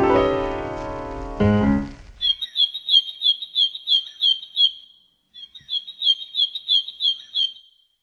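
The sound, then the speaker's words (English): A black-and-white warbler, a North American warbler, sings two phrases of thin, high, squeaky notes repeated in a steady rhythm, clear, after a brief burst of music fades out. “There's the black and white warbler, one of the most distinctive North American warblers.”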